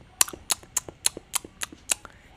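A quick, steady run of sharp smacking clicks, about seven of them, like loud open-mouthed chewing, each snap trailed by a softer tick, with no voices; a Windows system sound.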